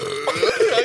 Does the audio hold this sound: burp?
yes